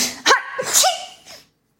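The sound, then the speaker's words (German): A high-pitched sneeze: a couple of quick breathy catches leading into a sharp, hissy burst, then a softer trailing snort, all in about a second and a half with no talking. “Als das Niesen erneut erklingt und das Licht wieder auftaucht, wagt er einen Blick um die Kurve.”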